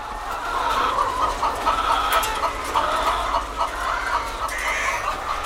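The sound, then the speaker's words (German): Dense, continuous clucking from a large flock of red-combed hens, many birds overlapping at once in a steady, busy din with a low rumble underneath. “Ein Rasen geht durch die Hühner, ein Meer ruckelnder roter Kämme.”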